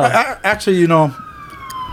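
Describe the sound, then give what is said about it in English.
A police siren wails steadily in the background in Chinatown, its long sustained tone running beneath a man talking in the foreground, then continuing on its own once the talking stops. “Oh, you can hear the police sirens in the back.”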